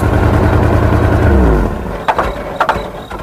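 A car engine roars loudly, its pitch sliding downward before it cuts out after a second and a half, followed by a few sharp mechanical clanks and knocks.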